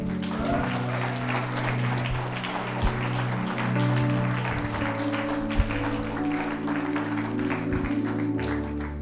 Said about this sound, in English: Can we give our God a round of applause?